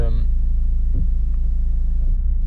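A car behind the speaker makes a loud, droning drive belt noise as its engine rumbles steadily, a brief harsh whine rising at the start before settling into a constant low roar.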